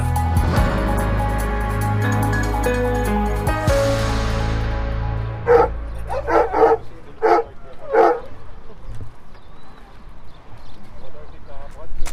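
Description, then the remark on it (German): After a brief musical intro fades, a police tracking dog in Nordhausen, Thuringia, Germany, barks in a quick burst of about six sharp, loud barks as it takes a sought person's scent from a bag and picks up the trail; then quieter rustling and faint movement follow. “Der Hund nimmt den Geruch von der gesuchten Person aus der Tüte der Geruchsartikel wurde vorher gesichert von fachkompetenten Persönlichkeiten und der Hund nimmt jetzt hier die Spur auf.”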